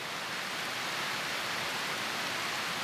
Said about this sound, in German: Aber das klingt nass. Hat es die ganze Zeit so geregnet? Nee. Meistens nur nachmittags.